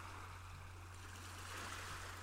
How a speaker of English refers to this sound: As the waves crash onto land, you hear it clearly. The breeze connects with your skin and cools you every time it feels the sun may get just a little too hot. The sound of the waves calm you.